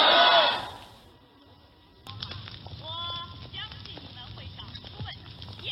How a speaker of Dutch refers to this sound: Je hoort nu het eh, vuur waarin hij zijn viool moet verbranden.